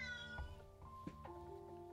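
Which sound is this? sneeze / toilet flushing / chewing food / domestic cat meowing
domestic cat meowing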